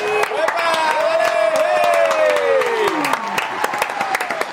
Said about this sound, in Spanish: Un aplauso bien grande para Mr. 450.